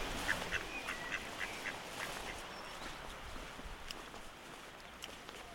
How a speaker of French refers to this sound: Faites attention, il y a un canard à côté de vous.